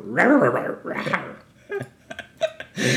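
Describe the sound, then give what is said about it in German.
A person imitates a tiger's roar with two loud, growly vocal bursts, followed by a few short, clipped throaty sounds and another rough burst at the end. “Meine Tiger-Imitation ist übrigens legendär gut, Leute.”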